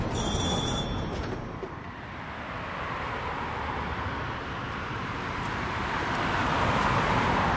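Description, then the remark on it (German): Steady, dense road traffic rumbles continuously, a broad wash of engine and tyre noise that swells slightly toward the end, with no voices and no distinct single vehicle standing out. “dieser Aufnahme von Verkehrsstille verabschiede ich mich”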